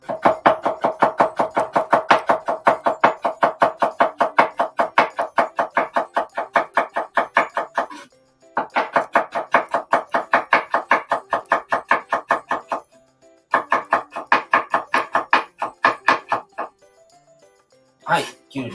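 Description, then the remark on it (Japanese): A knife chops quickly and steadily through a cucumber on a cutting board, tapping out three long runs of sharp, even strokes separated by short pauses. “次、きゅうり切ります。”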